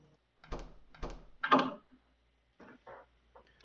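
A door being opened by a group of people: three sharp thumps and rattles in quick succession, followed by a few softer clicks and creaks as it moves. No voices.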